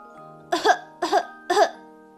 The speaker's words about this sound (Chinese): 如果咳嗽了，我们应该怎么办呢？在细菌跑出来之前，赶紧捂住嘴巴，像这样，拿手绢或者手捂住嘴巴，或是用胳膊挡住嘴巴，甚至是把头侧到没有人的一边去。